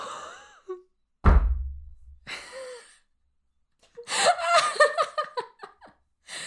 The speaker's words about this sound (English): has just slammed his head into the desk. He is now lying there, muttering into the tabletop.